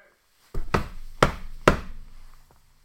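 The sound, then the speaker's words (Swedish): Someone knocks on a door: three or four loud, heavy thuds in an uneven rhythm, followed by a faint single tap. No one speaks. “Alltså, är det oss de knackar på?”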